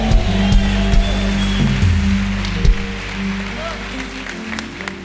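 A crowd breaks into loud, sustained applause for God, a dense wash of clapping lasting several seconds before gradually thinning, with a low musical hum underneath.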